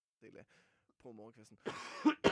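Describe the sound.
A close, harsh cough bursts out loudly near the end, with a second short hack after it, following a few brief murmured voice sounds.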